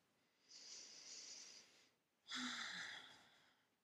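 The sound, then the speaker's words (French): A slow, deep breath: a long airy inhale, a short pause, then a fuller, slightly louder exhale, with no talking. “J'invite à prendre une grande respiration avec moi.”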